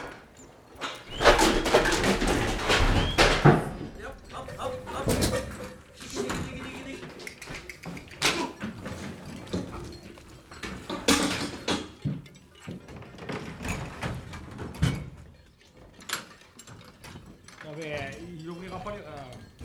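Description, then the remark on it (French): A door is opened and shut with a few knocks and clatters while people talk over and around the movement. “Mira, bien, Allez, puerta.”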